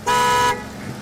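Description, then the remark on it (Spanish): A single loud car horn blast lasting about half a second, its steady harmonic tone cutting off abruptly, followed by quiet street ambience with no talking. “Hoy aguas con el carro.”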